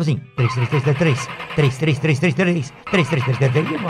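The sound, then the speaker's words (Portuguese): A man's voice imitates the engine of an old car starting, rapid chugging "333" syllables repeated in quick rhythmic bursts, loud, with a couple of short pauses between runs. “Era uma charanga que quando ligava o motor dela”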